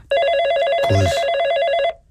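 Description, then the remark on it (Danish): A telephone rings with a steady, trilling electronic tone that fills nearly the whole moment, loud. A single short spoken word breaks in briefly partway through. “Oh, undskyld, det er min telefon, der ringer.”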